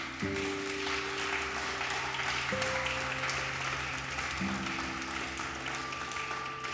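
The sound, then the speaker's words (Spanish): An audience claps steadily for several seconds as applause for the Lord during a sermon, a dense wash of applause over sustained low organ-like chords that shift every couple of seconds. “¿Puede regalarle un aplauso al Señor?”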